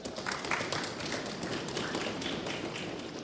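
An audience stamps its feet on a floor in a dense, steady rumble of overlapping thuds and taps, loud and lasting throughout without any talking, showing how many people are there.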